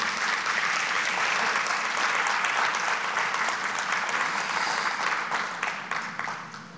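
A church audience applauds steadily in praise of the Lord, a dense wash of many hands clapping that holds strong for several seconds before beginning to taper off at the end, with no talking heard.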